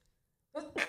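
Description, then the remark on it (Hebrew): A single fairly loud sneeze after a moment of quiet: a short voiced build-up that bursts into a sharp, breathy 'choo'. No one speaks. “לבריאות.”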